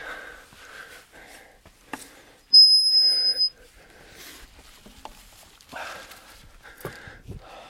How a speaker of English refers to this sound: Here comes the squeaky gate.